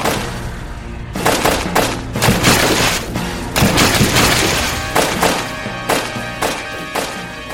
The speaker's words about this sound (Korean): 먼저 거북선으로 하여금 적선들 속으로 돌진하여 천, 지, 현, 황등 각종 대포를 쏘게 하였다.